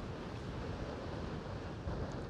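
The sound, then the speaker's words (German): Strong wind roars steadily across an outdoor microphone on a sunny beach, a dense, rumbling buffeting that fills the whole clip with no pauses, with a surf-like wash underneath and no voices. “Wir haben heute echt starken Wind.”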